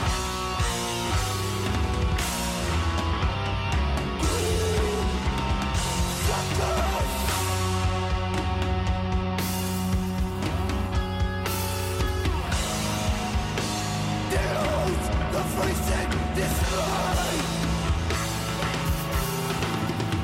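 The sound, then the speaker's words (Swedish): Loud, dense death metal plays without a break, distorted guitars churning over pounding drums and crashing cymbals, with no one talking over it. “Det är ju …-trummor så det skriker om det”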